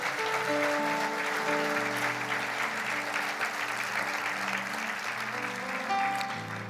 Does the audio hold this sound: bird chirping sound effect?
no